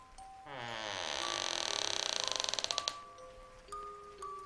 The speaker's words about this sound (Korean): 자고 있던 방문이 열리는 소리가 들렸습니다.